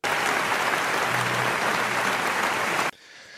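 A burst of loud, dense applause from a group celebrating someone walking, steady clapping for about three seconds before cutting off abruptly into quiet.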